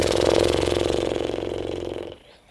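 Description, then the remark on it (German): A person blows air through loosely flapping lips in a horse-like snort, exhaling after breathing in through the nose during a guided breathing exercise. The rapid fluttering buzz lasts about two seconds, loud and steady before trailing off abruptly. No talking. “Und wenn du Lust hast, kannst du auch noch mal liebevoll durch die Nase ein und so Pferdeschnauben”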